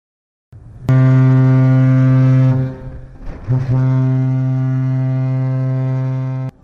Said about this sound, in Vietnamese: Sau hồi còi dài tạm biệt đất liền, tàu Trường Sa 571 thuộc Hải đội 411 Lữ đoàn 955 rời quân cảng Cam Ranh đưa đoàn công tác chúng tôi tới chúc Tết quân dân các điểm đảo Trường Sa.